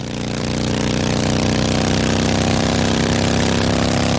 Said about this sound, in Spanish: Suben en la moto.